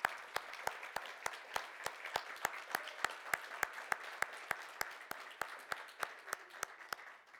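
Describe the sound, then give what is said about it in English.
An audience breaks into steady applause for standing people who have served or are serving in the armed forces, many hands clapping at once in a dense, sustained wash with sharp, regular claps standing out above the crowd for several seconds. “Will you give them a round of applause, please?”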